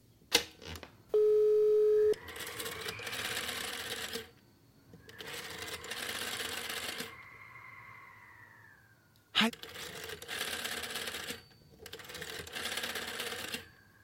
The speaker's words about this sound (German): Wir nehmen den Telefonjoker und rufen Yesterplay an.